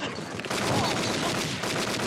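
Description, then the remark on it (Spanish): Dense, rapid bursts of movie gunfire from a television mixed with crackling firecrackers, starting after a brief quieter moment and continuing loud and unbroken, like a chaotic barrage. “Es la tele junto con los cohetes.”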